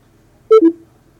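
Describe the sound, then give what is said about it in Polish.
A switched-off portable speaker gives a short two-tone notification chime as it is unplugged from charging, a higher beep falling quickly to a lower one, clear against a quiet background. “To był dźwięk, że głośnik został odłączony.”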